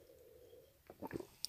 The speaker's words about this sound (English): By the way, if you just heard me gulping my coffee, I apologize and I will refrain from uh, drinking it whilst recording.